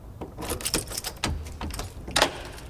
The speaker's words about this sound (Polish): Chwyciłem pęk kluczy i odnalazłem ten z czerwoną osłonką. Przekręciłem zamek.